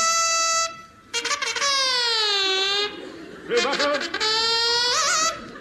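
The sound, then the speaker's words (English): A voice imitates a blaring alarm horn in two long, loud honking wails, the pitch sagging downward and then wobbling, with a brief higher hoot at the start. “Sound alarm.”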